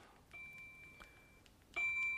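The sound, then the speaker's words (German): A game timer rings with steady electronic tones, a quieter sustained beep first, then a sharper, much louder ring starting near the end, with no talking. “also ich meine, in meinem Alter ist man schon etwas schwerhöriger, aber es hat von zehn Sekunden in unserem Probespiel noch lauter geklingelt.”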